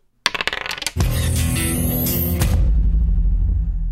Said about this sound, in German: Würfeln wir mal aus, was wir als äh, letztes Segment machen. Zahl 1 bis 6 ist das gleiche Segment. Ich würfel.